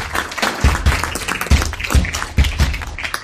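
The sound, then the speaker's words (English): An audience at a talk on 23 June 2022 applauds steadily for a few seconds, a dense wash of many hands clapping at once, fairly loud, with occasional heavier low thumps mixed in and no talking over it. “Let's give round of applause.”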